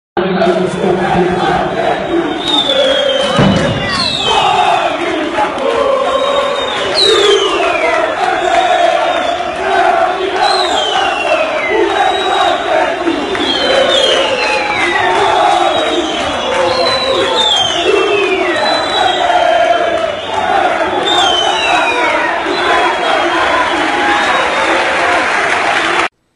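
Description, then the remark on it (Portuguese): A huge crowd of Benfica supporters chants together in a stadium during a football match, taunting rivals Sporting, a loud, unbroken roar of sung voices lasting throughout, with shrill whistles repeatedly cutting through above the chorus. “a torcida do Benfica canta que na final da taça o Very Light é o que fudeu.”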